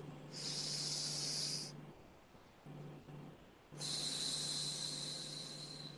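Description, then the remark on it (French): A deep breath drawn in and then let out during a guided relaxation session, two long airy rushes separated by a short pause, over a low steady hum with no talking. “Alors, une respiration.”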